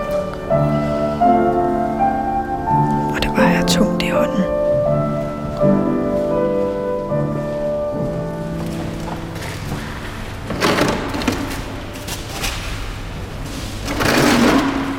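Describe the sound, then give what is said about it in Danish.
Bare feet tread and squelch through clay, sand and water being mixed on the floor of Mariakirken church on Istedgade, in irregular steps with several louder wet bursts, set against a steady layered droning tone throughout. “Det her, det er lyden af ler, sand og vand, der med en præsending bliver ældret sammen og trådt på med bare fødder.”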